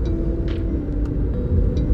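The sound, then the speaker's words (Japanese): A steady, low engine and road rumble fills the inside of a moving car driving home from work on a Monday evening, droning continuously at an even level with a few faint higher clicks and no one speaking. “今月曜日の夜7時です、えー、仕事が終わって帰りの車の中で撮ってるんですけども”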